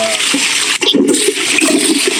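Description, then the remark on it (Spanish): A toilet flushes in a loud, continuous rush of churning water lasting about two seconds, with a brief dip partway through and no voices. “¡Tire la cadena!”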